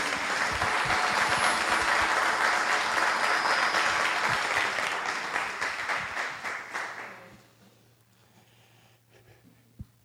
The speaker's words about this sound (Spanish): Un aplauso al actor, por favor.